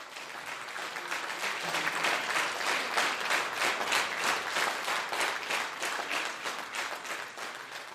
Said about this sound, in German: Fernsehsendungen wird der Applaus, den die Warm-Upper vor der Sendung mit dem Publikum üben, sogar aufgezeichnet und dann während der Sendung nur noch mal zur Sicherheit noch mit abgespielt, damit der Applaus dann auch auf jeden Fall tosend klingt.